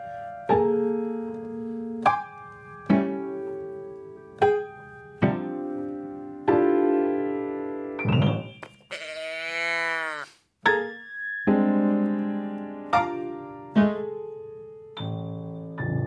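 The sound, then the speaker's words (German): Short, tonal musical phrases in a steady rhythm from a music piece played from the score, interrupted midway by a swooping, bleating moo from a moo box novelty toy, followed by more choppy tones. “Und, und dann habe ich eben versucht, halt diese, diese Mu-Schachtel irgendwie einzubauen.”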